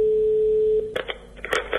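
A steady, mid-pitched telephone line tone hums for almost a second, then cuts off abruptly as a call to the 016 gender-violence helpline in Spain connects and a voice starts speaking over the line.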